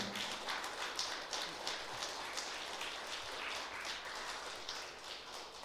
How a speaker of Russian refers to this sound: И как вам, ребят, вообще? Как вам то, что вы услышали сегодня? Похлопайте, если вам понравилось.